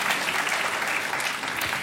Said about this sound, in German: Ja, und ich habe einen oktopusfreien Wissenschaftsthriller mitgebracht, denn ja, das ist durchaus einen Applaus wert.